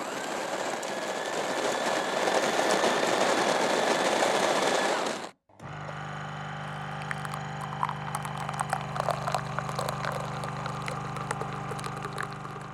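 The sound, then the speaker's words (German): An espresso machine making an espresso with milk: a loud, steady hiss runs for about five seconds, cuts off briefly, then a droning pump hum takes over with scattered rattles and clicks, with no talking. “Wenn du Espresso hast mit Milch, dann würde ich das nehmen.”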